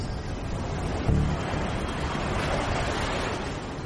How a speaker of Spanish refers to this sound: Vimos como el agua giraba y giraba sin cesar, haciendo un ruido atronador al romper en las rocas.